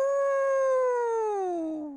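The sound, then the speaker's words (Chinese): A single drawn-out howl of the wolf Wolf Boss (狼老大), steady and loud, holding a mid-pitched tone for about two seconds before sliding downward and fading out at the end. No talking. “哎呀，狼老大已经在你眼前了！”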